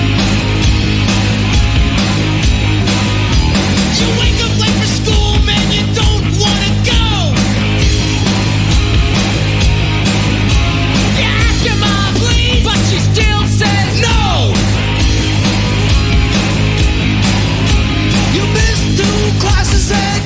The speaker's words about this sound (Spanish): vamos a escuchar casi como un, un grito del momento a los Beastie Boys haciendo Fight for Your Right